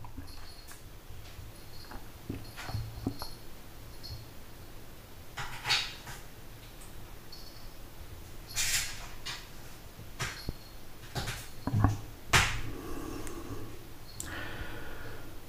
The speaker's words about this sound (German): Ja, mein Kater ist wie gehört wieder mal sehr aktiv hier in der Küche.